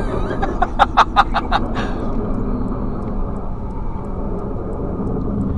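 Worn, very old car brakes squeal in a quick rhythmic series of about seven short, harsh squeaks as the vehicle slows, over a steady low road and engine rumble that carries on afterward.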